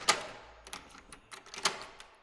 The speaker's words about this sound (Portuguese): Ora bem, abrimos a porta do Centro de Documentação, onde estão os jornais arquivados, desde a primeira edição do Público em 1990.